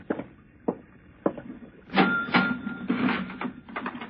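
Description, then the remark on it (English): A shop door latch being thrown shut as the shop closes: a few sharp mechanical clicks, then a louder rattling clunk and scrape of metal near the middle, followed by lighter clicks. No voices. “You throw the latch on the door.”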